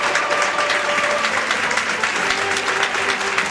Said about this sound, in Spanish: Un gran aplauso y merecido.